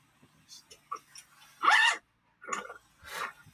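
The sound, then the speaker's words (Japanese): A zipper rasps open and shut in three short, scratchy bursts, strongly picked up by the microphone, with a few soft rustles and small mouth sounds between them. “なんかもうめっちゃチャックの音拾ってる。”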